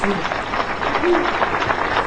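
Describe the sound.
A crowd applauds a Spanish-language speech steadily, dense overlapping clapping that fills the whole moment at a fairly loud, even level, with voices murmuring and calling out underneath.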